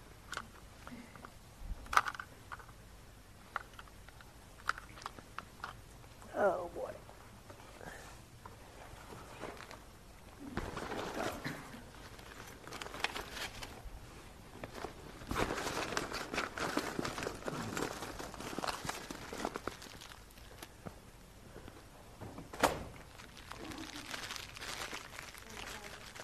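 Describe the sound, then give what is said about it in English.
Batteries being swapped in a microphone: irregular sharp clicks, snaps and rustling handling noise, busiest in a dense scraping middle stretch, with one more crisp click near the end and no talking. “So we'll just take a moment here and change batteries.”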